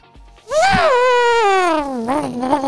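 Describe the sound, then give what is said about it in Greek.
A single voice mimics a high-revving V10 engine, a loud sustained nasal whine that rises sharply, holds with a slight wobble, then slowly falls in pitch, ending with a short warbling rev. “Και ακού το V10 κάνει...”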